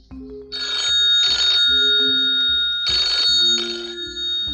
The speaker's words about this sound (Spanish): El teléfono está llamando y la bruja va a contestarlo.